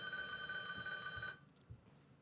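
A bell rings continuously with a bright, shimmering metallic tone for just over a second, then cuts off abruptly, leaving a quiet background with a soft thump.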